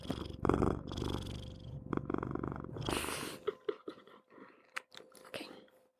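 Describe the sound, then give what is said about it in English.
A cat purring, a steady low rumble broken by crunchy chewing and scraping noises toward the end. No one speaks. “Can you hear that? It's, the cat is meow, is purring.”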